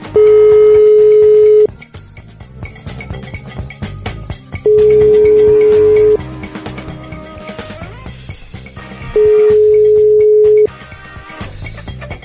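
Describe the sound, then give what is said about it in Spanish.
A WhatsApp call ringing tone: three steady, loud electronic tones, each lasting about a second and a half, repeating every few seconds over a busy, low background of clatter. “Necesito con las llamadas de WhatsApp.”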